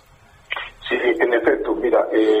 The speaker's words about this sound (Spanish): no, no te estamos escuchando bien. No sé si te puedas acomodar bien el teléfono o si tienes un speaker, eh, mejor utilizar utilizarlo de forma directa. A ver, si me puedes escuchar a ti. Eh, eh estamos escuchando muy mal.